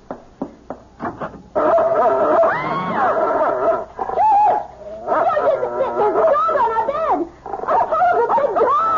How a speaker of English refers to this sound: It's only a dog, for Pete's sake. He's not going to hurt you.